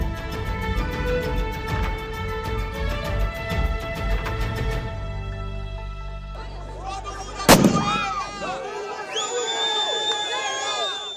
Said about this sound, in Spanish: Es el sonido de una de las protestas de los partidarios de Bolsonaro, es el sonido que nos llega hasta ahora de Brasil